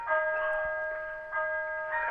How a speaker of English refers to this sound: Um, I um, that was my clock. Yes. Well, do, do not do not ask for whom the bell tolls. do not ask for whom the bell tolls.